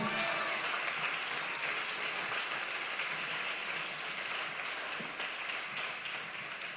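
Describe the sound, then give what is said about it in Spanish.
A church audience applauds for Christ, the King of Glory, during a morning service, a dense, steady wash of many hands clapping, loud and sustained with slight fading toward the end. “Dale fuerte el aplauso al Rey de Gloria.”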